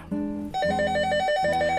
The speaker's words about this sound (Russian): Опять звонят.